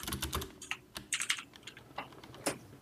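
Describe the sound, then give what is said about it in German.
Rapid keyboard typing of a message into a chat, a string of light, irregular clicks and taps with short pauses between bursts, fairly quiet and with no one speaking. “Ich schreibe jetzt auch in den Chat”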